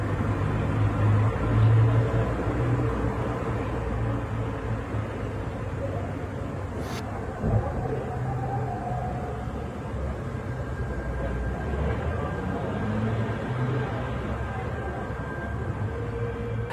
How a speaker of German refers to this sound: Ja, und äh, er wohnt offensichtlich in der Nähe eines Bahnhofs. Jedenfalls hört man hier wunderschöne Verkehrsgeräusche im Hintergrund.